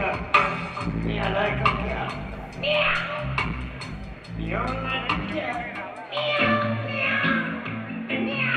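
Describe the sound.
A singer repeatedly meows like a cat, claiming to be a cat, in a session recording over a busy musical backing, the imitated cries rising and falling in short bursts throughout.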